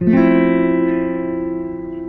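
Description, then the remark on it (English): A single strum of an F chord with one string freed so the first finger need not hold two strings, ringing fairly loud, then slowly fading over about two seconds with no voices. “But if the F chord is hard for you, maybe maybe your first finger is finding it hard to hold two strings, you can actually free one string, but your F chord is going to sound like this.”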